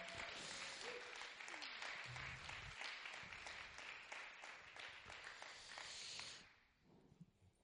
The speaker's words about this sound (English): And uh, we give you a clap and a cheer.